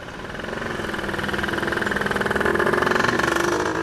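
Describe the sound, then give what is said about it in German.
Morning traffic rumbles on Hanauer Landstraße, a busy street in Frankfurt's Ostend, Germany: a steady engine drone with a throbbing pulse that swells gradually as a vehicle nears, then eases slightly at the end. No one speaks. “Schon morgens donnert hier der Verkehr durch, Straßenbahnen rattern vorbei, Radfahrer fahren zur Arbeit, es ist belebt.”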